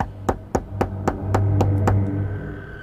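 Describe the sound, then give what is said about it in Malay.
A series of seven sharp knocks on a hotel room door, evenly spaced, with a low steady hum underneath and no voices. “Siapa yang main ketuk-ketuk pintu bilik hotel saya?”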